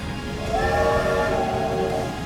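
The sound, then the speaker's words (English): A space train's horn blares in a long, sustained chord over a low rumbling background as the train blasts off, loud, holding steady for a couple of seconds with an echoing quality. “As soon as her feet were in the train, the door slid shut behind her, and the space train blasted off with an echoing blare of its horn.”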